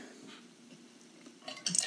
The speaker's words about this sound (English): I'm opening a beer.